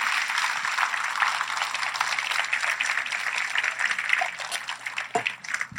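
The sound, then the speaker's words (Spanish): A church audience applauds the Lord steadily, a dense, continuous wash of many hands clapping that holds an even loudness throughout and thins slightly at the very end, with no voices over it. “Ahora sí puede darle un fuerte aplauso al Señor.”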